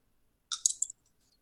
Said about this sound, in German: Ähm, musst du da irgendwas für würfeln oder so? Ich habe den gerade nicht hier liegen. Ja. Warte, warte, ich gucke. Mit Fokus muss ich würfeln? Mhm, ja, dann mach.